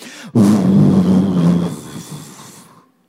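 A sudden, loud roaring rush like a powerful gust of wind bursts in, booming and low, then gradually fades away over a few seconds.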